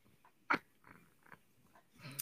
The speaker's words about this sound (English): Our, our Piglet cat Piglet agrees